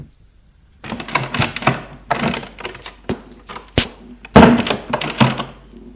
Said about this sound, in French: ouvre une porte.